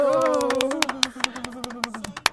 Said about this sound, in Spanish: Perfecto. Muy bien, aplauso. ¡Bravo!